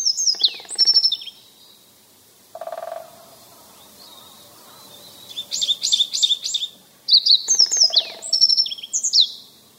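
A yellow bunting (Nojiko) sings clear, high-pitched chirping phrases in three or four separate bursts with short pauses between, fairly loud, with no voices present.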